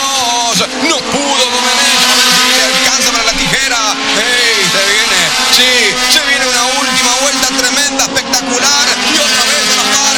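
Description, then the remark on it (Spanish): Race car engines drone and whine steadily through a live radio broadcast of a car race, with a voice talking continuously over the motor noise, dense and loud from start to finish. “escuche la carrera que se escucha por por eh, FM Deporte”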